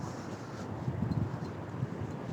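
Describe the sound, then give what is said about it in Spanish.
Steady wind rushing through foliage, a dense continuous hiss with soft low gusts swelling and fading, even in loudness, with no voices. “Hay un algo en el ulular, en, el sonido de las hojas, no sé, bastante tranquilizador.”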